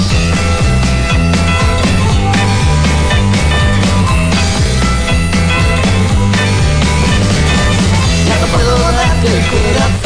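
A full-band rock song with a country twang plays loud and steady, driving bass and drums under bright guitars and vocals throughout.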